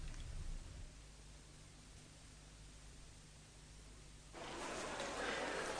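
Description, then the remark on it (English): Steady radio static hisses at a low level with a faint hum underneath, then surges abruptly into a louder, harsher crackling wash for the final seconds. “It'll be a long time before the static clears up.”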